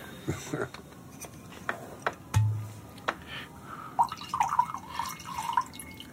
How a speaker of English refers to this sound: to um, pour out some wine for your, your elderly lover? Sure.